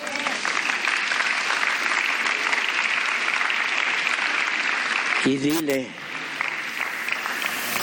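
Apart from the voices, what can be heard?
audience applause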